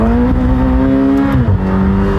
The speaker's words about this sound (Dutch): Zo, we een wielspin het blijft gewoon doorspinnen.